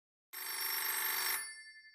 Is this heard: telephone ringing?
yes